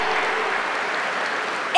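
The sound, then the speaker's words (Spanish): An audience applauds the King of Kings, Lord of Lords, steadily, a dense wash of many hands clapping at an even level, with a voice cutting in briefly at the very end. “Dale un aplauso al Rey de Reyes, al Señor de Señores y decirle, eso quiero para mi vida.”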